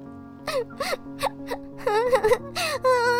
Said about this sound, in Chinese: 当他们走到山腰时，忽然听见有人在哭喊着，而且好像是小孩子的哭声呢。